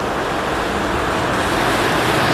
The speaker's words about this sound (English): Maybe the rain is abating ever so slightly.